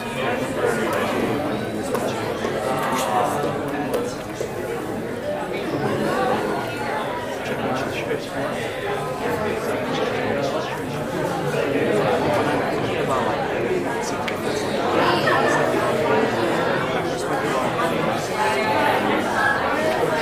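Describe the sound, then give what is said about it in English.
An audience, guests included, chats in small groups for a few minutes, many overlapping voices blending into a steady, continuous murmur with no single speaker standing out. “Just say, I don't want to share anything, just listen in on a conversation. Okay? So let's do that now for the next three or four minutes.”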